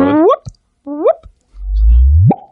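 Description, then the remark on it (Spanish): A voice imitates the whoop of gravitational waves turned into sound, the sound of a wormhole disappearing: two short upward-sliding chirps, then a longer low rumbling tone that sweeps sharply up in pitch at the end, fairly loud. “Ese era el sonido de desaparecer el agujero de gusano.”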